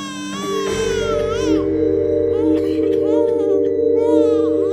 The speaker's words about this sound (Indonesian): Ada pula seorang bayi yang menangis dengan keras.